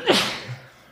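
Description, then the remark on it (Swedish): A single sharp sneeze bursts out, a quick breathy explosion that trails off into a soft exhale and quiet. “Nu nös jag.”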